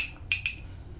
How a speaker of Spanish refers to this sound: Bueno, me extendí un poco en el primer tema, así que me voy a dar el segundo sorbito del día rápidamente